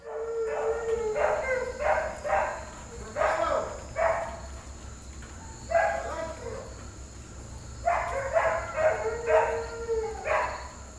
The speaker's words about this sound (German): Die Hunde drehen einmal am Abend komplett durch. Alle jaulen und was weiß ich was.